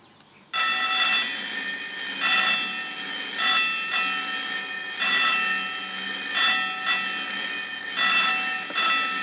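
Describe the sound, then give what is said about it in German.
A loud, rapid metallic warning bell at a railway level crossing on the Lahntal line toward Aumenau, signalling that two trains may be coming, starts abruptly and rings continuously in a fast, pulsing rhythm, with no voices. “Als akustischer Warnton klingt so ein Bahnübergang, der auf zwei Züge hinweisen kann, gleich ein bisschen anders lauter und energischer.”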